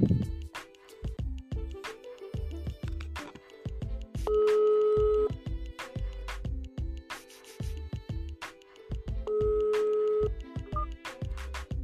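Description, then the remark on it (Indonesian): An outgoing phone call to a guest rings twice, two steady electronic ringback tones about five seconds apart, heard over a busy rhythmic music track with no one speaking. “Langsung aja kita telepon orangnya nih, karena kita hari ini mau collabs bareng. Gue telepon ya.”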